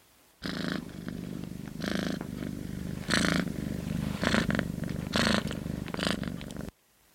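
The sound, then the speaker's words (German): A domestic cat purrs steadily, a low continuous rumble that swells into a breathier rasp at regular intervals with each breath, with no voices. “Für mich war unser Monsieur Katerchen immer ein ganz besonderer tierischer Kumpel.”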